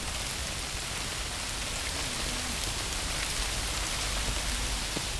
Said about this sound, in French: Même passion pour les fleurs, les couleurs, les bruits qui n'ont l'air de rien, la pluie qui tombe sur les iris.